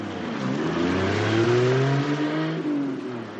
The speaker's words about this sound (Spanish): El coche se aleja.